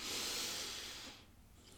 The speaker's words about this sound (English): So take a moment, allow yourself to breathe, breathing in,